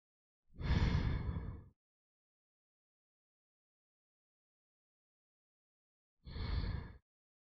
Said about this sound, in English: but if you're somewhere where you can close your eyes, I just want you to close your eyes for a second and I just want you to take three inhales and exhales with me.